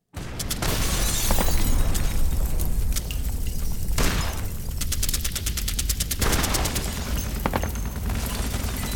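Sharp bursts of rifle gunfire crackle in rapid volleys, with heavier explosive booms rolling underneath, loud and dense throughout: the explosions and rifle fire that woke Leon Trotsky and Sedova at four in the morning on 24 May 1940.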